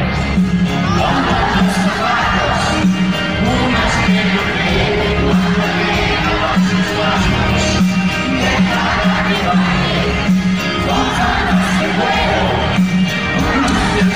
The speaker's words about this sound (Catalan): Aquest era el so del concert abarrotada la plaça, l'antiga plaça de Braus, la Tàrraco Arena Plaça